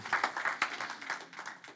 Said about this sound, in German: Das ist ein Applaus wert. Ihr dürft gerne äh, euch selber zujubeln.